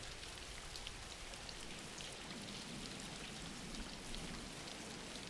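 Steady rain falling, a continuous dense hiss with faint scattered drop patters throughout, even in level and with no voices.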